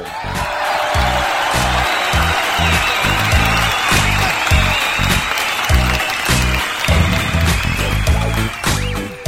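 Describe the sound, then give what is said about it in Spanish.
Sustained audience applause: dense, continuous clapping from a crowd at steady loudness for the whole stretch, with a few faint whoops and cheers mixed in. “Venga el aplauso.”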